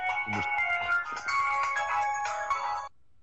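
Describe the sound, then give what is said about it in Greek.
A phone rings with a bright, melodic electronic ringtone, a steady tonal pattern that plays for about three seconds and then stops abruptly. No one speaks over it. “Κάποιο τηλέφωνο βαρύ.”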